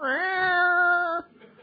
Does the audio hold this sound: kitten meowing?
yes